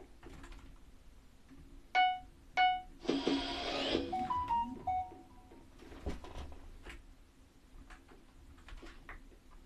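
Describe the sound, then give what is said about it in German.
A mobile phone rings with bright electronic tones: two short, evenly spaced chimes, a brief buzzy burst, then a few quick falling notes, heard over a steady low background hum. “Sorry, das war gerade mein Handy.”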